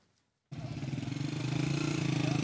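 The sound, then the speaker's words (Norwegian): After a brief hush, a loud moped engine suddenly roars in, puttering with a rapid pulsing rhythm and growing slightly louder as it rides along: young men on mopeds returning home to the town of Assas (Azaz) in northern Syria, seven kilometres from the Turkish border. “Unge menn på mopeder kommer hjem.”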